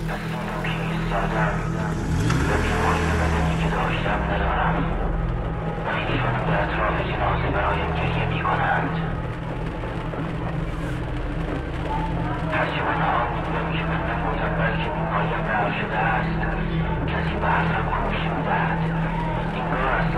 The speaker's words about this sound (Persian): دنده را جا زد و پایش را روی پدال گاز فشرد و ماشین به حرکت درآمد